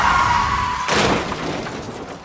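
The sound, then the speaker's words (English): A steady whining tone cuts off into a sudden loud bang of a car tire popping as the car hits a pothole, followed by a gritty, crunching tail that fades over a second or so. No one speaks. “I think you're going to need to replace the tire. It popped when we hit the pothole.”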